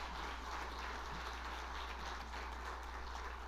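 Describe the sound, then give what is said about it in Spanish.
An audience applauds to God for the young people who graduated from university, many with honours: a dense, steady wash of many hands clapping that holds at an even, fairly soft level throughout, with a low electrical hum underneath and no voices. “Un aplauso a Dios por ellos.”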